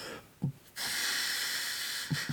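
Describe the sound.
A voice imitates the steady hiss of a gas heating boiler, a sustained breathy rush held for over a second, bracketed by short sharp intakes of breath before and after.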